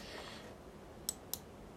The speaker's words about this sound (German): Ich habe hier, sorry, wegen dem, äh, wegen, dem Braseln da und wegen dem Klicken. Das eine, dieses Klicken hier, das da, ist meine Maus, mit der ich hier gerade arbeite.